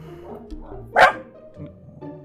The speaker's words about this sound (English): Oh, now the dog upstairs is barking and he's getting mad.